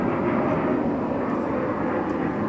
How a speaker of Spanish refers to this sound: hay otro avión. Sí. Todos están pasando te, hoy, ¿no? Te quieren mutear los aviones.